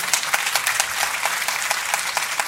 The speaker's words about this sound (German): Genau, Ihr Applaus.